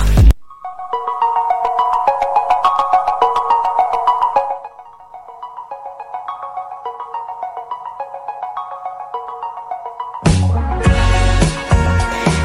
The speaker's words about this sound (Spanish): Cuestión que no sé si se dieron cuenta que me empezó a sonar mucho el celular en un momento. Encima yo tengo la marcha peronista de Rington,